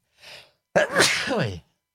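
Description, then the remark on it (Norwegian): A single loud sneeze: a short breathy intake, then an abrupt explosive burst trailing into a voiced exhale, with no talking. “Hørte jeg prosit ifra et samla lytterkor.”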